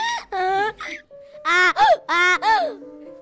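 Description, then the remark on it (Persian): A human voice imitates a donkey's bray, the donkey in a children's story singing: several loud, strained, tonal bursts in quick succession, rising and falling in a hee-haw rhythm with brief pauses between them. “الاغ ارعری کرد و گفت فقط سه تا گلابی من بده من بچه ها نگه میدارم براشون آواز میخونم و شروع کرد به ارعر کردن آه آه”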